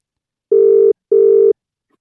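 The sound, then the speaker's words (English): An outgoing phone call's ringing tone: two short, steady electronic burrs in quick succession, the classic double-ring pattern, clear with no voices. “should we call him now without letting him know we're calling him?”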